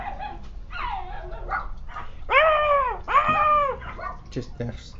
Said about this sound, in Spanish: Este, bueno, ya, ya me retiro porque estos perros no, van a dejar de ladrar.